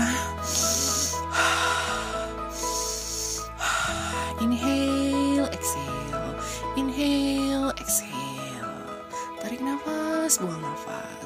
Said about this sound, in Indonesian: Sini, sini, sini bu, sini bu. Let's take a deep breath dulu ya bu ya.